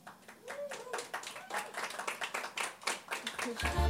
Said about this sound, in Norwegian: da syns jeg vi skal gi en stor applaus til